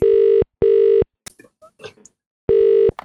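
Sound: telephone dialing and ringing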